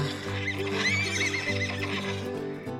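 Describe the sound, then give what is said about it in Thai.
Several horses, a white horse returning at night from the forest with ten wild horses following, whinny and neigh over a steady clip-clop of hooves, with a low sustained musical drone underneath throughout, at moderate loudness. “หลังจากนั้นผ่านไป 15 วัน ในคืนหนึ่ง ม้าขาวก็กลับมามันไม่ได้ถูกขโมย มันเดินทางเข้าไปในป่า แล้วมันก็ไม่ได้กลับมาตัวเดียวด้วย ยังมีม้าป่าตามมาอีกสิบตัว”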